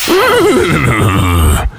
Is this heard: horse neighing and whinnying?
yes